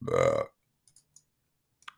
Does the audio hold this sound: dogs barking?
no